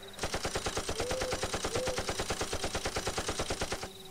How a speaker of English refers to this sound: He shoots the machine gun randomly into the woods.